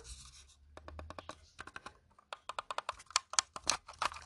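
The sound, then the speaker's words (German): A second computer mouse is fetched, picked up and handled, with a run of sharp clicks, taps and light scrapes that grow denser and louder toward the end; no one speaks. “Ähm, weil Leute, meine andere Maus, die ich hier kurz holen kann, die hier”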